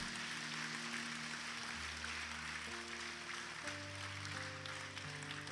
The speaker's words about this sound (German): Gib mal einen fetten Applaus für all diejenigen, die sich entschieden haben.